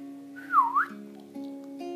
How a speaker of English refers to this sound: Now she sees the rocks, the trees and ferns. She hears a bird.